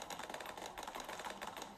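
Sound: clicking on a computer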